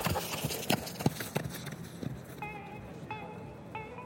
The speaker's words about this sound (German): Der Händler gab dem Diener das Pferd, und er schwang sich in den Sattel, riss an den Zügeln und schlug dem Pferd die Fersen in die Flanken und galoppierte die Straße hinab, die nach Samara führte.